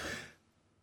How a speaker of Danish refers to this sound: Nå, øh, det var ved at sige, inden jeg hostede hjernen ud